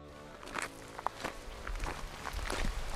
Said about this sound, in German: So die Nebelschwaden fliegen so da vorbei und es ist alles so still, man hört nur seinen quietschenden Schritt.